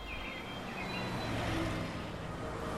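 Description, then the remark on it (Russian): Steady roar of road traffic, with cars rushing past and the noise swelling briefly midway. A few faint bird chirps sit high above the rumble. “Мимо проносились автомобили, какие-то резко тормозили и объезжали его.”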